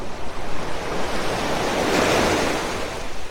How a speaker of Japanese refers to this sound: えー、海辺の音をお届けしてます。